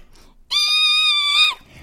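A single high-pitched goat bleat, held steady for about a second and trailing off at the end, loud against a quiet background with no talking.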